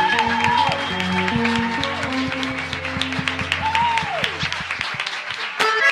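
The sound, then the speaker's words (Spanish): An audience breaks into loud, steady applause, dense rapid clapping that lasts throughout, with a couple of rising and falling whoops or whistles and some sustained tones mixed in before it fades at the end. “Un aplauso”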